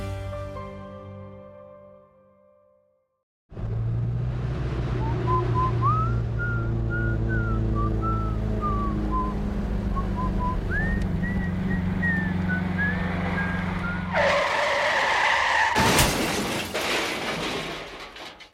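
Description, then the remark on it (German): A car's tires squeal in a long, wavering screech over a roaring engine, ending in a loud, sudden crash of impact and shattering. “Totalschaden. Der Unfall des Bertolt Brecht ereignet sich am 20.”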